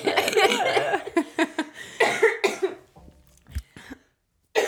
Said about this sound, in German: Nein, im Fall der Husten ist immer noch ein bisschen von, von dem, was ich hatte. Aber schon viel besser.